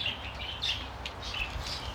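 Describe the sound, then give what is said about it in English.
Several birds chirp in overlapping short tweets, a steady high-pitched chatter over a low background rumble, continuous. “Our bird population has increased.”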